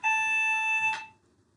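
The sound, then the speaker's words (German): A hotel room phone rings once as housekeeping calls to ask about room service, a steady, buzzy electronic tone lasting about a second, cut off by a short click before fading to quiet. “es hat gerade Housekeeping angerufen, ob wir heute Service benötigen.”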